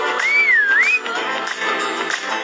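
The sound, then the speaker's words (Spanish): A single short whistle glides down in pitch and then swoops back up, lasting under a second, heard over a steady bed of busy background noise. “Chifla.”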